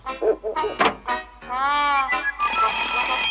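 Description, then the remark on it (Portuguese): A telephone rings loudly, with chirpy electronic tones that warble and then settle into a sustained, high, buzzing ring. It is presented as Inspector Gadget's ultra-secret telephone. “É o telefone ultra secreto Bugiganga?”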